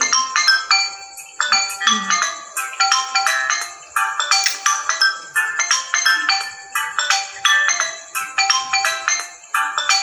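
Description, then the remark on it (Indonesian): A phone ringtone plays a bright, repeating electronic melody in short rhythmic bursts, loud, continuing steadily without any talking over it. “Itu telepon atau nada dari Telepon.”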